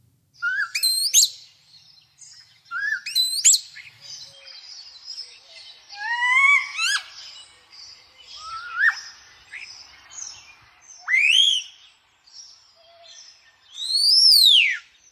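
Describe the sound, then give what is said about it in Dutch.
A starling's varied calls fill the air: rising whistles, clicks and harsh chattering notes in a busy, irregular sequence, fairly loud, with no voices, recorded in the Kroondomeinen on the Veluwe near Nierssen, Gelderland, Netherlands. “wat hoor je hier allemaal? Kersenjatter.”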